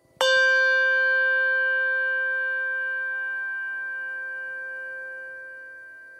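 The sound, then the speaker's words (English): A Schulmerich handbell with a tang is struck once and rings alone, a clear bright tone with shimmering overtones that sustains for several seconds while slowly fading. “This is a Schulmerich bell, the one with the tang.”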